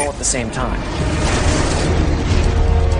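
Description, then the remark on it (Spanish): A loud, deep explosion boom of a meteorite impact, a roughly 50-metre-wide piece of iron striking a desert and releasing about 20 megatons of energy, swelling into a sustained low rumble, with a voice briefly audible at the start beneath it. “La energía liberada rondaría los 20 megatones, el equivalente a una explosión de 20 millones de toneladas de TNT.”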